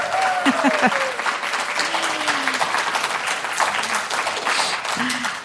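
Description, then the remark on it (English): Steady audience applause in Rochester welcoming Drew, author of the Catstronauts children's book series, fills the whole span: dense rapid clapping at an even volume, with a few faint whoops and voices rising above the crowd. “Please welcome Drew to Rochester with a hearty round of applause.”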